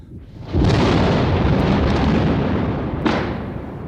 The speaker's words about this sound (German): so fliegt der göttliche Gedanke in mir auf, allemal während der Donner auf seiner Heerpauke fürchterlich wirbelt.